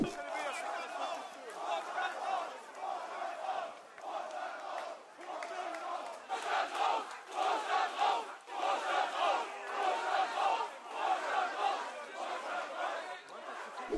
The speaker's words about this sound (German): Vorstand rausrufe, Baumann rausrufe.